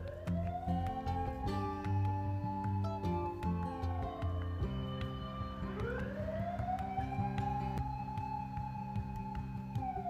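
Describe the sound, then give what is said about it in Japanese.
A fire engine siren wails loudly, its slow rising and falling tone sweeping up and down over a steady rumble of traffic, with no one speaking. “えらい今度は消防車。”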